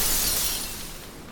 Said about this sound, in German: Er nimmt den Koffer und wirft ihn mit all seiner Kraft gegen die Schaufensterscheibe.